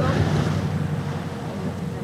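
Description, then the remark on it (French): A small boat sets off across the sea on a dolphin-watching outing, dolphins leaping around it, with a steady engine drone, water rushing and splashing along the hull, and wind buffeting the microphone throughout. “Notre petite embarcation se met en route et très vite, nous apercevons nos premiers dauphins qui viennent sauter autour de notre bateau.”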